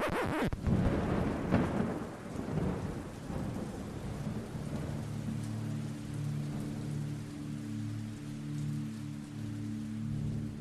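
A thunderstorm with heavy rain: a loud, rolling crack of thunder near the start gives way to a steady rain hiss and a low, droning rumble that persists to the end.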